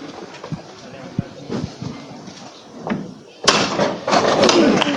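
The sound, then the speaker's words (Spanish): A loud, sharp knock of the llamador hammer on a procession float of the Gran Poder brotherhood, at the procession's departure, cuts through a murmuring outdoor crowd after a few fainter thuds, and is followed by a swell of crowd noise. “Va a tocar el martillo”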